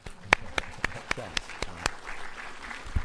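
A short round of applause: crisp, steady hand claps in a regular rhythm ring out over softer scattered clapping, with faint voices murmuring underneath before it fades.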